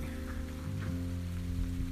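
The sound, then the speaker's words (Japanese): Steady rain falls in Niigata, Japan, a soft continuous patter spread across the sound with a low droning hum underneath, no voices present. “失礼こちらあなんか雨つぶらってきた”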